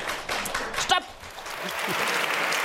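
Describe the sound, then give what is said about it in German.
An audience claps steadily throughout, testing its applause as a warm-up before guests come on stage, a dense wash of many hands, with a few voices calling out amid the applause. “Also zum Beispiel, wenn die Gäste gleich auf die Bühne kommen, könntet ihr schon mal testen, wie das klingt.”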